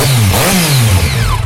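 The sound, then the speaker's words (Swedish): A motorcycle engine revs loudly, its growl rising and dipping in pitch over a second and a half, with no voices over it. “Jävlar vad den lät va.”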